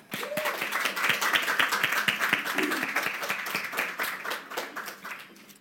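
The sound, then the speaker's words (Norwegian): An audience at a panel debate breaks into steady applause for the introduced panelists, many hands clapping in a dense, crackling patter that holds at a fairly even level for several seconds before tapering off slightly at the end. “Så vi kan gi de en eh, liten applaus.”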